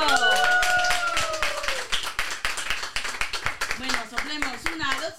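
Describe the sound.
A few people clap steadily in dense, rapid bursts for several seconds, with voices calling and cheering over it at the start and again near the end.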